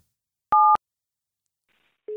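A single short touch-tone beep from a telephone keypad, a steady dual-pitched tone about a quarter second long, followed by silence and then a lower steady tone starting at the very end.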